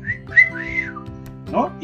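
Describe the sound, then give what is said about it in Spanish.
A person whistles a wolf whistle: a quick rising note followed by a longer arching tone, clear, with a brief murmur of voice afterward. “Pero yo me acuerdo que había chiflidito de”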